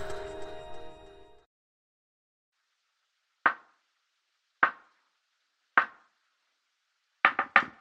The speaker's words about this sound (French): Je traduis pour vous, hein, c'est du morse. Elle vous dit à demain, tout ça.